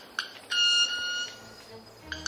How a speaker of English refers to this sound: So he's not using his voice for that. It's just his wings. He's got this instrument. Yeah, it's like it's called stridulation. So this is a cricket-winged manakin would be a perfectly good name for this bird.